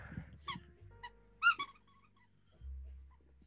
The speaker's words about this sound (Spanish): el perro se está explayando mucho, weón. Está haciendo mierda un conejo que tiene aquí